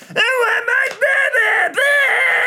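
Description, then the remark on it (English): A voice imitates a kid in a pushchair screaming during the two-minute silence at Twickenham, a high, strained wail broken into several loud, sustained bursts with brief gaps, intense. “Like everybody's like a, it's like completely silent in Twickenham, and there's this one kid just screaming,”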